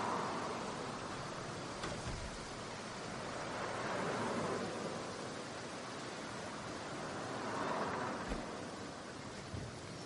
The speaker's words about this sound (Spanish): El fuerte viento zarandea las ramas de una palmera junto al motel.